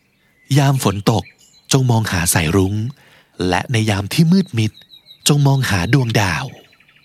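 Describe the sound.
Soft birdsong twitters faintly in the background, thin high chirps surfacing in the pauses while a voice speaks steadily in the foreground.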